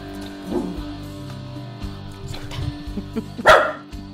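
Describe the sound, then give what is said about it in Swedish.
A dog barks a few times, short sharp bursts, the loudest one near the end, with a steady low background hum in between. “Nej, han får inte vara med redan på en morgon. Kan du sluta?”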